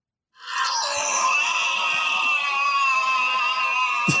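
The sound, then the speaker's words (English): A giant robot's long, drawn-out death scream as it melts in the rain: one loud, sustained, harsh wail, unlike its normal voice and in different octaves, that holds steady for about four seconds before cutting off abruptly. No one speaks over it. “You're alone, and you're watching this giant robot scream to death.”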